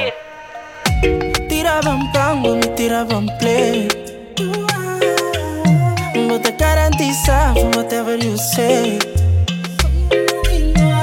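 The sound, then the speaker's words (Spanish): A new upbeat Latin pop song plays on the radio, loud and continuous, with a steady rhythmic beat, punchy bass notes and a singer's vocals riding over layered synths. “Pero bueno, suena así esta novedad aquí en la radio.”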